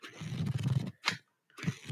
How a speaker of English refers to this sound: And uh, now everybody, uh, just listen to me while I uh, flip through this book a little bit.